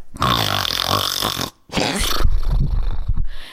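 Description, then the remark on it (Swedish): A person imitates grown men snoring in a house with two loud, raspy, throaty breaths: a long rumbling inhale, a brief pause, then a gurgling, snorting exhale, with no speech. “När du ligger så som jag gjorde och så hör du vuxna karar ligga och snarka i huset.”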